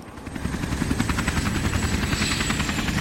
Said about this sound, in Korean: 헬기가 가까이 다가오자 온건설장이와 하고 삽이며 곡괭이며 다 집어던지고 허둥지둥 착륙 지점으로 몰려갔다.